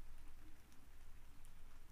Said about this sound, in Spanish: Quiero que puedas imaginarte cómo cae cada gota de esta lluvia que escuchas ahora. Cómo es el aire de este paisaje y el clima del sonido de lluvia que logras percibir en el fondo.